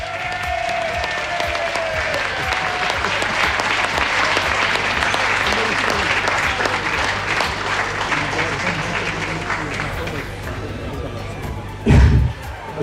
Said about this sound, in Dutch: Een applaus